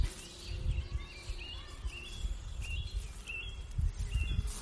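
Small birds chirp faintly, short high tweets scattered throughout, over a low steady outdoor rumble with no one speaking, on a Sunday in an outdoor area with a children's play zone of wooden structures, bike paths and ziplines.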